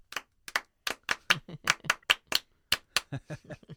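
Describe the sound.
A man vocally imitates the jingle of the TV pop program Drop In with a quick, rhythmic run of short, sharp, percussive syllables, about eighteen clipped bursts over four seconds, loud and without any instruments.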